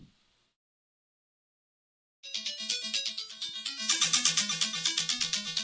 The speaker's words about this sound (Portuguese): É, é um jogo de nave, né? Kazanak. é, eu lembro que foi um joguinho de nave assim no começo da minha infância mesmo.